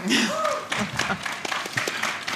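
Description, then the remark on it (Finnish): A few studio guests clap for themselves in a short, uneven burst of applause during a Radio Suomi broadcast from Narikkatori in Helsinki, the sharp claps crackling steadily for a couple of seconds while a voice briefly speaks at the start. “Joo, taputetaan itse itsellemme.”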